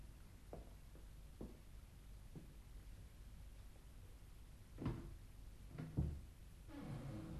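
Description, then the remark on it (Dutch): A few soft clicks, then two louder knocks and a low creak as a door is opened, otherwise quiet with a slight hiss and no voices. “Daar is nog een deur. Die zal wel niet op slot zijn.”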